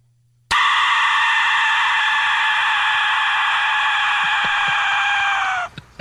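A single sustained, piercing Aztec death whistle shriek, harsh and rasping like a human scream, blaring loudly and steadily for about five seconds before cutting off abruptly.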